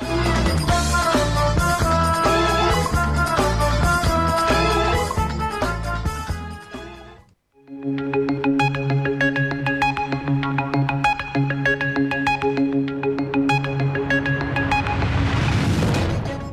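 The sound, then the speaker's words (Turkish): A short, upbeat radio ad jingle for the Maarif school in Australia plays loud: busy rhythmic music, a brief pause near the middle, then a brighter melodic section of sustained, ringing tones building at the end. “Evet sevgili dostlar, e, jingle'ımızda da duydunuz.”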